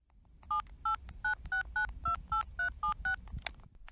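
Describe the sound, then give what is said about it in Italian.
A string of about ten touch-tone beeps as a man dials a phone number to call his mother, each short dual-pitched tone evenly spaced and clear over a low background rumble. “Il cognato di Aral parla al telefono con la propria madre.”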